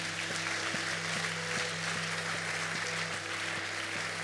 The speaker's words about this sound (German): Lasst uns hier mal einen großartigen Applaus geben.